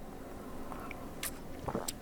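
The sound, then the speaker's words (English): A quick sip of water: a few soft, wet slurping clicks and a swallow over a quiet background, with no one talking. “Take a sip of water there.”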